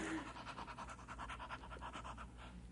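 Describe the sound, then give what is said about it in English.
A dog pants rapidly and steadily while digging a man out from under a tractor, a quick continuous rhythm of breathy huffs over a low background rumble, with no one speaking. “and you mean to tell me that your dog dug you right out from under that tractor?”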